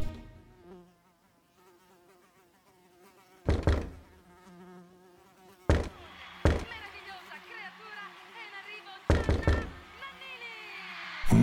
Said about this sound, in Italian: pomeriggio assolato, di quelli che anche il ronzio di una mosca può risultare fastidioso.